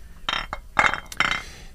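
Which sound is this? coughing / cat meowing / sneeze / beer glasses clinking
beer glasses clinking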